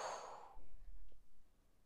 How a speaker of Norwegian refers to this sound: Og da begynner vi med å puste inn Hold pusten. Og pust ut.